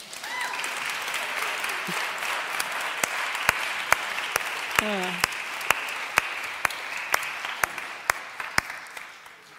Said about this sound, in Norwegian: Do you want to come up here as well? The oldest, uh, oldest sons? Yeah, come. ja, vi gir dem en applaus òg.